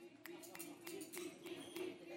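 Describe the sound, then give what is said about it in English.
About six sharp hand claps in a steady rhythm, roughly every third of a second, over a continuous murmur of voices, done as part of a game of Simon Says. “All right, the people who didn't do the clap, the, the this, because Simon said do this too.”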